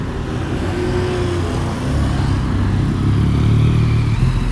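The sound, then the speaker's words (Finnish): Delivery motorcycle and scooter engines pass by with a steady, rumbling drone that swells louder midway, layered over busy street traffic noise with no talking. “Täällä muuten kulkee tosi paljon moottoripyörä tai skootterin lähettäjä ja nämä ajaa erityisesti jalkakäytävillä, mikä on ihan fiksua, koska liikenne on niin aggressiivista ja muskulääristen autojen hallitsemaan.”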